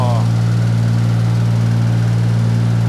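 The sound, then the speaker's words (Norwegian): The engine of a feed dispenser, which looks like a big lawnmower with a tank, idles steadily. It makes a loud continuous low drone with an even throb that never changes pitch; a brief voice-like sound surfaces at the very start. “Ser ut som en slags stor gressklipper med en tank på.”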